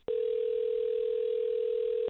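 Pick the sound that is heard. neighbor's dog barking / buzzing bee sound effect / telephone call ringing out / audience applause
telephone call ringing out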